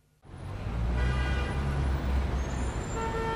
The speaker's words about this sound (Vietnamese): Nhiều xe khách dừng đổ đón trả khách chiếm một phần lòng lề đường, tiềm ẩn nguy cơ tai nạn giao thông.